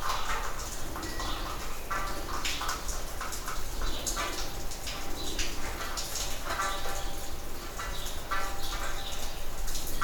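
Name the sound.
birds chirping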